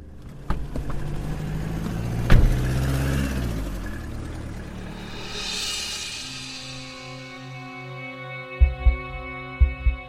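A car engine rumbles and pulls away, its sound rising then fading into the distance, followed by a few low, soft thumps near the end. No one speaks.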